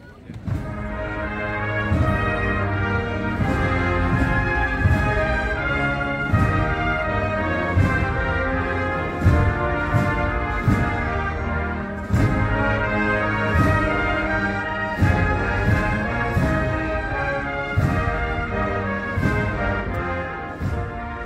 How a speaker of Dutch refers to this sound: Ja, ik zie het. De, de NAVO heeft een volkslied. Ik ben heel benieuwd. Laat me horen.